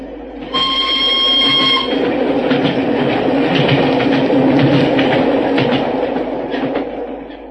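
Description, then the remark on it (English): The single carriage of a special train thunders past at Canterbury with a loud, sustained rushing roar and rattling clatter, a steady high whistle tone sounding briefly at the start before fading into the rumble. “As we hid behind a pile of luggage at Canterbury, we saw the single carriage of the special go thundering past us.”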